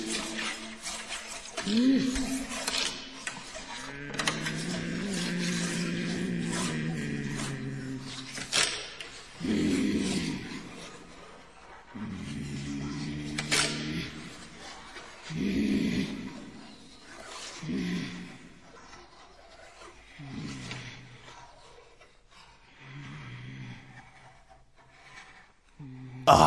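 Eerie experimental music with strange, moaning and groaning vocal effects, sustained wails rising and breaking off between sharp plucked accents, fairly loud and unsettling throughout.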